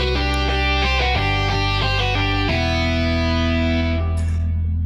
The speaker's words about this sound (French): Virgule sonore, je vous prie.